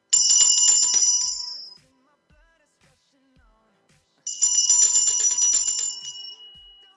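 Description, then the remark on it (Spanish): A Japanese bell is struck twice, each bright metallic ring sustaining and slowly fading over a couple of seconds, with a quiet pause between strikes and no talking. “Esta es una campana japonesa.”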